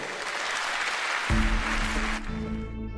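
A crowd claps steadily in a dense, crackling wash of applause; partway through, low sustained music swells in underneath and carries on as the clapping fades out.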